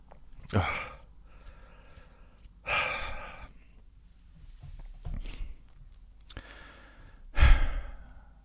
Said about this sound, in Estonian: veidi hingamist teile lihtsalt, veidikene maha rahunemist teile lihtsalt.